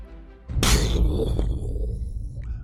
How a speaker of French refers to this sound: Un coup de feu. On voit une nuée d'oiseaux qui quitte la tranquillité des arbres qui a été troublée euh, pour s'envoler, euh, effrayée un second coup de feu.